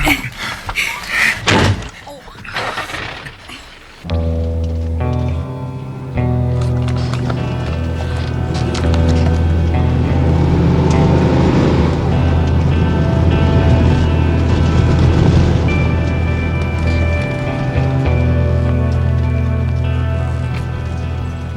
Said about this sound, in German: Jeff lenkte seinen alten Pickup über die kleine Zufahrtsstraße durch den Wald